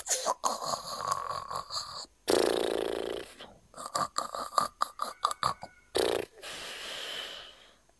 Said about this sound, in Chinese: 等他直起腰时，番茄骑士已经打着震天响的呼噜睡着了。